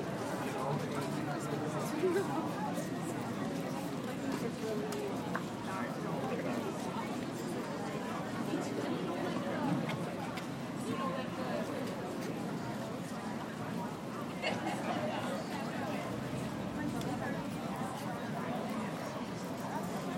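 Steady outdoor crowd babble from many voices at a crowded art fair in Madison, Wisconsin, USA, recorded on July 9, 2022, while walking through it. Footsteps and a walking pace move through the throng, continuous and fairly loud, with no single clear speaker standing out.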